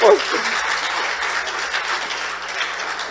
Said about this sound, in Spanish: Dale un aplauso a mi bella